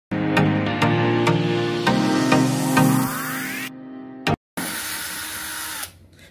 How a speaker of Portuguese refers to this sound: Ó, primeiro vou utilizar essa furadeira. E aí o primeiro cap aqui, é, eu venho aqui no centro e aí vou fazer isso aqui.